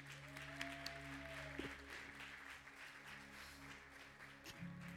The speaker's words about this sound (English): Get a Lord a hand clap again.